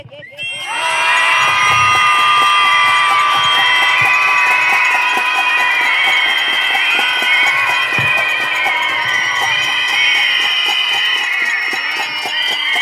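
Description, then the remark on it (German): A protest crowd screams together against violence against women in one loud, sustained roar that starts abruptly and holds steady for about twelve seconds, many voices overlapping in high, strained shouts. “Dafür schreien wir jetzt.”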